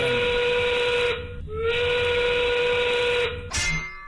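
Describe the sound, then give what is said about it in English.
A loud five o'clock factory steam whistle, sponsored by Smart Local Union 9 Sheet Metal Workers, blows in long, sustained blasts with a breathy hiss of steam, briefly dipping midway before sounding again and ending in a sharp gush of steam. “The 5 o'clock whistle, powered by oh.”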